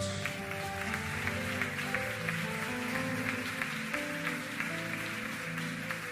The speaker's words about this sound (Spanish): Alguien que le dé un fuerte aplauso a Dios.